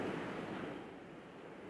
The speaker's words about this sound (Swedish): Och det höga vågskvalpet, ljudet från vågorna tystas bort och vi ser en gestalt i svart.